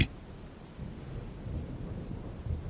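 Heavy rain pours steadily in the middle of the night on December 16, 2011, a dense continuous hiss over a deep low rumble that swells slightly partway through, with no voices.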